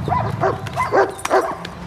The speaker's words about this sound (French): Le chien.